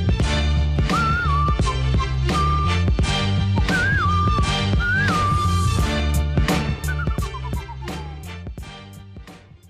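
An upbeat theme tune with a steady, punchy drum beat, a full bass line and a bright whistled melody on top, playing loud without any voices before tapering off at the end.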